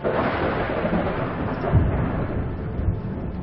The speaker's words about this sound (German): Die Luft in direkter Nähe eines Blitzes wird schlagartig aufgeheizt und dehnt sich explosionsartig aus. Dabei entsteht ein ohrenbetäubendes Krachen der Donner.